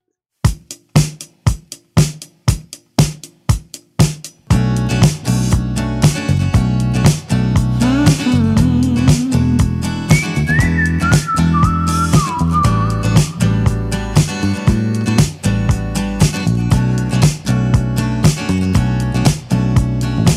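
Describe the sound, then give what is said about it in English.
A pop song plays loud, the first single from a band's upcoming album, opening with a run of sharp, evenly spaced hits before the full band kicks in with a steady groove and a bright melodic line weaving above it. “But um, they've just released the first single from it, and that's what we're going to hear right now.”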